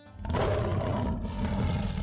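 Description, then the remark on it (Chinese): A loud, deep lion roar made by a little pig after eating a magic lion-roar candy rises quickly and holds for about two seconds, rumbling low with a rough, gritty edge. No one speaks over it. “这是神奇狮吼糖，吃了这种糖果就可以发出狮子的吼声哦！”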